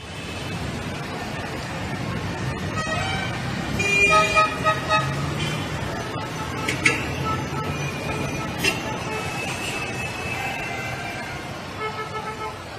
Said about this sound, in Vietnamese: Trời đã chạng dạng, đường lên Chí Hòa thiên hạ qua lại dập dìu, xe hơi, xe thổ mộ chạy liên tiếp, tiếng kèn với tiếng chuông nghe không dứt.